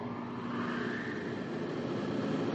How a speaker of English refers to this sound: Progress is the sound of a motor, the hum of a turbine